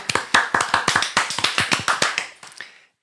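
A short round of applause, added in editing for the winner of a predictions game: about a dozen sharp hand claps in quick, slightly uneven rhythm, tapering off after a couple of seconds. No one speaks.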